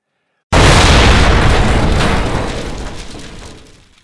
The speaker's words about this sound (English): that flawless 1920s kitchen, we hear the sound of gas leaking and a pilot clicking as our camera zooms slowly in on the gas range. And then there is a loud sound of one last click, followed by an explosion as the entire scene is engulfed in flames.